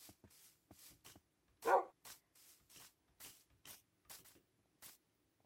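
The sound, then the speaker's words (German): Dogs bark in a quick, irregular series of about a dozen short yaps, one noticeably louder and fuller than the rest, as the dogs run along behind, with no talking. “Okay, die Hunde laufen hinterher.”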